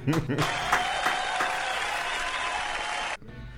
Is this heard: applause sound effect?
yes